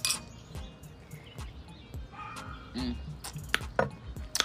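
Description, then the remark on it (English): Glasses clink together several times in a toast, bright sharp taps scattered irregularly, over a low murmur of background noise. “Cheers, homie.”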